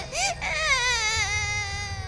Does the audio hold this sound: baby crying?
yes